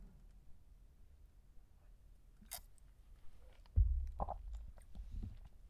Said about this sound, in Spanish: Pausa para trago de café.